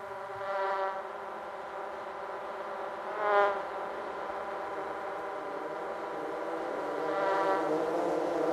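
A housefly buzzes continuously, its droning hum swelling as it passes several times, with no talking. It plays over the Fox logo at the opening of the film The Fly II, and the fly sound merges into the sound of a helicopter.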